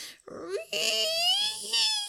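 A dog named Shorty snores in one long, squeaky breath: a whistling, whine-like tone that climbs steadily in pitch over a breathy hiss, fairly loud and with no talking.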